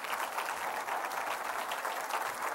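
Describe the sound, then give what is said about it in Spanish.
An audience applauds for Christ, a dense, even wash of many hands clapping at once with no pauses, sustained at a fairly strong level and with no voices rising above it. “dele un aplauso a Cristo, hermano.”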